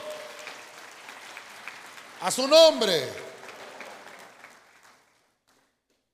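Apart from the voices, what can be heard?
audience clapping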